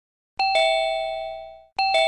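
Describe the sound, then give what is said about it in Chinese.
An apartment doorbell rings with a two-tone ding-dong: a bright chime struck twice, ringing out and slowly fading, then the same double chime starts again. No voices are present. “一套公寓住宅的门铃突然响了起来，还在浴室里的男主人披上浴袍出来开门，估计是送牛奶的吧，要不就是邮差。”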